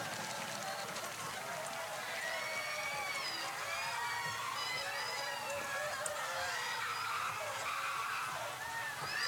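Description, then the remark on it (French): A dense crowd of villagers in a film scene screaming in terror as their village is set on fire and burns, many overlapping high-pitched shrieks and wails rising and falling continuously, with running footsteps and commotion underneath, loud throughout. “Les cris sont épouvantables.”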